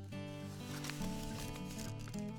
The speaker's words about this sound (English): Oh. It's Close. an envelope. It's an envelope. It's an envelope.